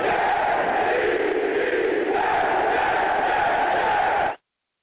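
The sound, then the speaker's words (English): A studio audience cheers and chants in a loud, continuous roar of many voices that holds steady for about four seconds before cutting off abruptly. “Listen, studio audience, I need y'all to settle down.”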